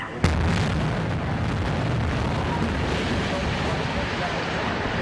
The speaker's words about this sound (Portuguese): Engenheiros usaram explosivos para demolir a parte do edifício que ainda estava de pé.